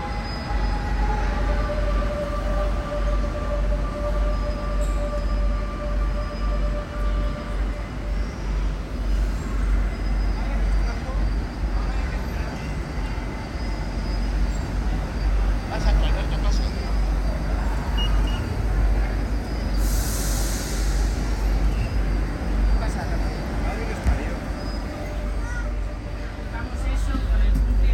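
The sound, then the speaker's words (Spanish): A Bilbao metro train rumbles steadily with a deep, loud roar, high whining motor tones that rise and fade, and a brief sharp hiss of air near the end, with faint station chatter underneath. “METRO BILBAO”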